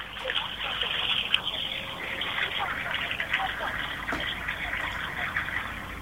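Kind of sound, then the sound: nature, water flowing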